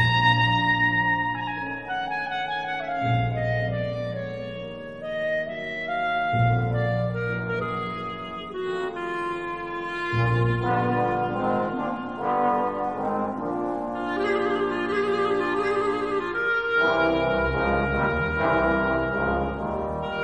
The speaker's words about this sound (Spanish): Vamos a hacer una breve descripción de este instrumento, que antes de seguir, por cierto, quiero hacer notar ese espectacular solo de clarinete que hemos oído y que pertenece a la obra de Rhapsody in Blue de George Gershwin